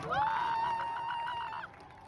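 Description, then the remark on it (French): A long, steady car horn blares for over a second above the noise of a shouting, cheering crowd of protesters against the religious authorities in an Iranian street in the evening, and the crowd's din carries on after the horn cuts off. “Au son des cris et des klaxons, le mouvement de contestation propagé dans plusieurs villes ne faiblit pas”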